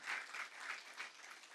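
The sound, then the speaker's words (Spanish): An audience breaks into sustained applause for God, a dense wash of many hands clapping steadily with slight swells in loudness, no voices standing out. “Dios se merece un aplauso ahí.”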